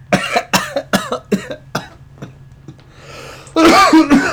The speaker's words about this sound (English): Guys, I'm coughing.